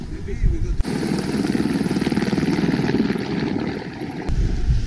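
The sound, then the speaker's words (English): A heli-skiing helicopter carrying four guests and a guide on a short flight up Monte Rosa to the Pyramid Vincent, over 4,000 meters altitude; its rotors thump in a fast, steady rhythm, loud, with the heavy engine roar filling the whole clip and a brief shift in tone near the end. “we're going to get on a helicopter here and drop off at the Pyramid Vincent”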